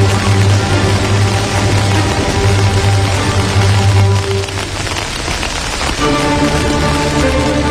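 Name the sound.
heavy rain falling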